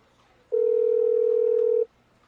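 A mobile phone dialing tone: one steady, mid-pitched electronic beep that holds evenly for just over a second, then cuts off, with only faint background hiss around it.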